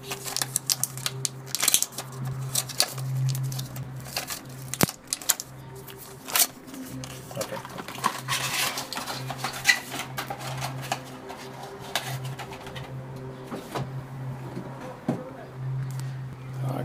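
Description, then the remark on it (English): Cocodamol pills being pushed out of blister packaging: irregular plastic crackles, foil pops and sharp clicks, scattered over several seconds above a steady low hum. “I need to put the phone down because I need to try to get these out.”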